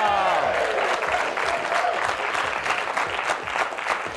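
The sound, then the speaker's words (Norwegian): Steady, dense applause from a quiz show's studio audience as three participants arrive, many hands clapping continuously at an even loudness for several seconds, with a faint tonal swell fading early on. “Og eh, da syns jeg dere skal klappe enda mer, for nå kommer nemlig”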